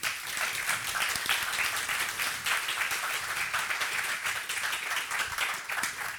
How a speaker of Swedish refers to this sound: Ge dem en varm applåd.